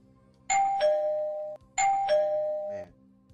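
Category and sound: household object, doorbell ringing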